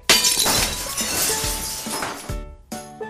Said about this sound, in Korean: 방금 그 소리 뭐야? 뭘 또 깼어? 누구야?